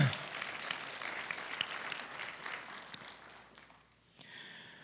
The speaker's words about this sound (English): Yeah, it's worth applauding.